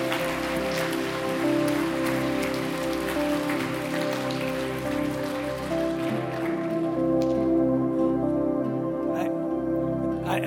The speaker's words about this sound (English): For God so loved you four that came today, huh? Yeah, let's clap.